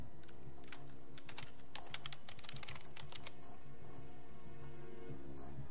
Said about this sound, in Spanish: Ella escribe en un teclado.